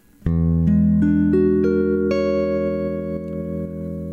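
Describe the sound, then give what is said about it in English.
A guitar plays a jazzy 13 sharp 11 chord, its notes picked one after another in quick succession and left ringing together into a sustained, shimmering chord, with no talking over it. “That …, is a 13 sharp 11.”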